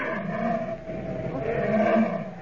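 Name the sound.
grizzly bear roaring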